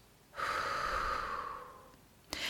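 breathing out

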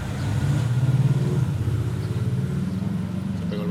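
motorcycle engine revving

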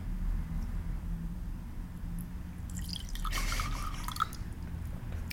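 wine pouring

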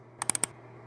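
computer keyboard typing

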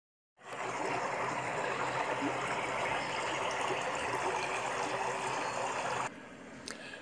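flowing water

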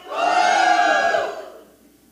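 audience shouting

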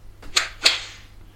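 whip crack

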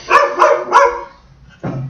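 dog barking

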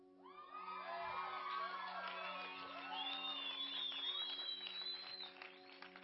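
audience shouting and cheering

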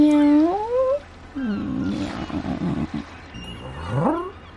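cat growling

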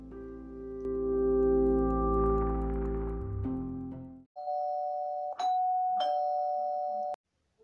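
doorbell ringing

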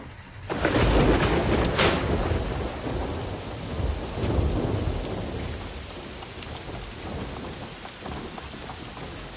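heavy rain

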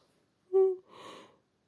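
yawn

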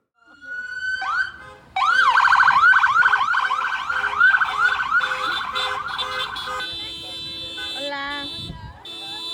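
police patrol car siren

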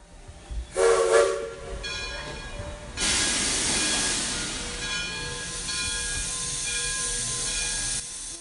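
train

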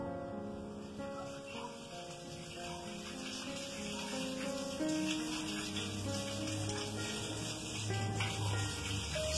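flowing water

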